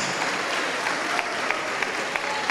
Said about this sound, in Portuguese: Ô oh, glória, vamos aplaudir mais. Vamos aplaudir mais.